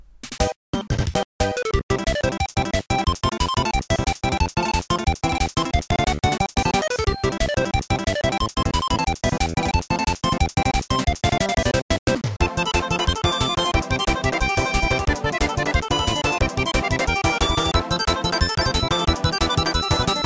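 A bright, bouncy music track from the Nintendo video game Kirby Squeak Squad plays continuously, with busy layered melodies over a steady driving beat, loud and full throughout with no voices.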